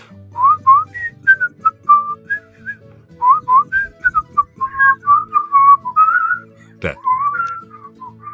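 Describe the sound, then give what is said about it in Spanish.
Someone whistles the melodic theme music of the program Tierra Adentro, a steady string of rising and falling notes with brief pauses between phrases, and one sharp percussive click near the end. “Espero que me salga bien el silbido, porque hay una parte, para recordarle a la gente a quién nos referimos.”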